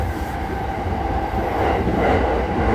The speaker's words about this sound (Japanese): まあ、今長いねえー鉄橋を渡っておりますはいおまあ反対のねすれ違い風圧を感じる音